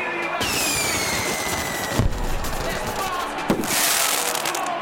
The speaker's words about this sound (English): That was a good firework. Yeah, that's called Star Demon. It's it's good.